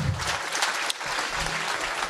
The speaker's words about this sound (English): All right, let's give him a big round of applause.